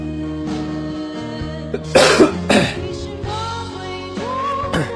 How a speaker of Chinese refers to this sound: 最近咳嗽一直也没有完全好，而且自己老是不老实。其实不抽烟可能会好一点，偶尔抽两根烟，搞得自己嗓子一直也没有完全好。